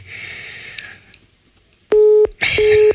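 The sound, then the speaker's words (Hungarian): A crackly phone line hisses briefly as a caller's voice drops out, then goes dead quiet before two loud, steady busy-signal beeps cut in, as though the call had dropped. “Röviden és magyarul, és megint eltűnt a hangja.”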